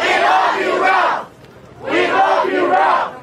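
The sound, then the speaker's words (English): A large crowd at a rally in downtown Kansas City, rallying behind a 16-year-old boy, shouts in two loud, sustained surges of many voices, separated by a short lull, like a repeated chant. “From crowds in downtown Kansas City.”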